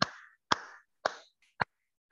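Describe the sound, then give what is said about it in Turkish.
A few sharp, clap-like bursts of applause opening a broadcast: four loud, crisp hits spaced about half a second apart, each ringing out briefly, then a faint click. No one speaks. “Evet, bu yayını alkışla açıyorum.”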